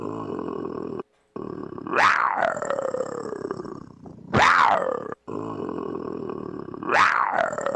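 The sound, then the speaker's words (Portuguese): A person's voice imitates a roar, with three loud, growling bursts spaced a couple of seconds apart. Each one rises sharply and then trails off over a steady, rumbling background. “Dá um rugido aí, …, pra gente terminar a noite feliz”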